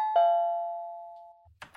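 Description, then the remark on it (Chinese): An electric doorbell at Lulu's house is pressed and sounds once with a bright, bell-like chime that rings out and slowly fades over about a second, followed by a short burst of rustling noise. “啊，大家，你看，露露家有电铃啦，按这个。”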